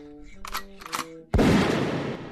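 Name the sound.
shotgun blast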